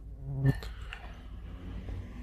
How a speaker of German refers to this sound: Was Sie hier übrigens hören, ist eine Mücke auf dem Mikrofon.